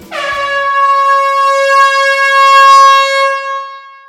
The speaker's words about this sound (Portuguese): E pode soar a buzina que esse episódio já está começando.